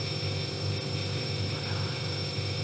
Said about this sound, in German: Ist der Kühlschrank angegangen?